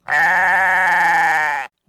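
A single loud, drawn-out bleat of an angry goat, wavering slightly, lasting over a second and a half before stopping abruptly, with no other sounds around it.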